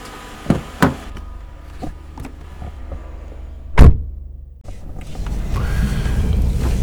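Inside a car at night, as a passenger gets out at a scheduled stop and back into the car: a couple of sharp clicks and rustling movement lead to a loud door thud, followed by a steady low engine and road rumble as the vehicle settles in.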